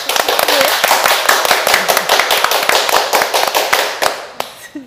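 clapping

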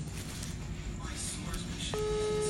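phone ringing tone

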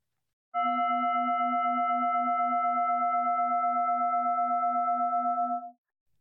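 singing bowl ringing

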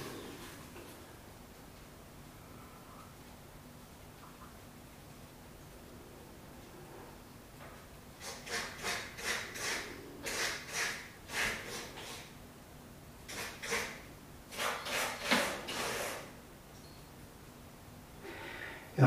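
cat scratching

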